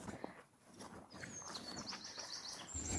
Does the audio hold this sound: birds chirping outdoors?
yes